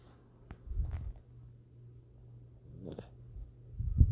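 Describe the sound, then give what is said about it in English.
A female dog snores softly while asleep next to a person, with a few low, rumbling breaths rising and falling against an otherwise quiet background. “I thought maybe you could hear her snoring. She was sleeping next to me.”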